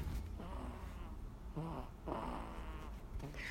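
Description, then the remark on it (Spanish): A baby snores softly while carried in a woven fabric wrap carrier, a faint, steady rumbling breath that rises and falls in a gentle rhythm with no talking. “Seguramente la pueden escuchar roncar.”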